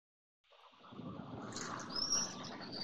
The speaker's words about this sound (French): Il est juste sorti de son restaurant et on entend les petits oiseaux de la Nouvelle-Aquitaine.